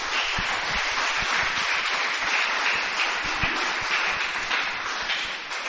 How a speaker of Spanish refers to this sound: Dele un fuerte aplauso al Señor por esa palabra.